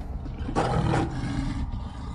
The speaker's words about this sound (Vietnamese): Tiếng của một sinh vật lạ gầm rú ở trong căn ngục tối vang lên